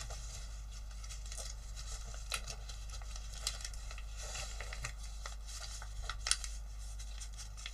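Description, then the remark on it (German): Paper being folded for origami, an arm folded together and a flap turned over to form a pocket: quiet rustling and creasing with small crinkles and soft taps scattered throughout, over a faint steady hum, with no one talking. “Haben diesen Arm hier zusammengefaltet. Haben das hier umgeklappt.”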